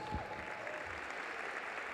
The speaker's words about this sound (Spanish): Dale un fuerte, fuerte aplauso a Jesús.